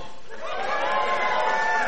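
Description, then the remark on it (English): An audience of dog people in a main auditorium cheers and shouts loudly, a dense wash of voices that swells over two seconds with some high whoops rising above the roar. “Let me hear the dog people.”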